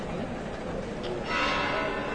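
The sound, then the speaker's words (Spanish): Cathedral church bells begin ringing partway through, their sustained metallic tones rising over a dense, steady murmur of crowd noise and voices. “Y empiezan a sonar las campanas del templo catedralicio.”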